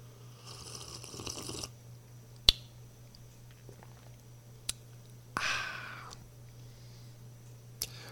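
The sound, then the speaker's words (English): A quiet slurping sip of coffee from a mug, with a few sharp clicks of the mug being handled before and after, over a low steady hum and no talking. “just so you'll know, Misty, in case you're watching this, that is the first sip I've had from this mug.”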